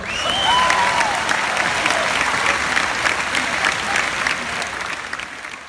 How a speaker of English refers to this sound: And thanks to our teachers, we have all the tools we need to succeed in this next chapter of our lives. And they all deserve a big round of applause.